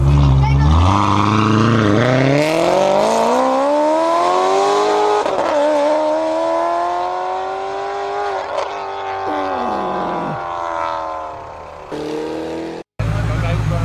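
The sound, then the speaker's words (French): The engine of a Grand Turismo S sports car revs loudly, its pitch climbing and holding in a long sustained roar before dropping off abruptly near the end. “Bon voilà, euh, tout ça pour vous dire que la Grand Turismo S”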